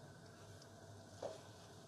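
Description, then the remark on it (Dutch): Half a white cabbage, sliced paper-thin, sizzles steadily as it fries in melted butter in a pan, a soft continuous crackle with one brief louder clink or stir partway through; no one speaks. “En die ga ik nou even bakken.”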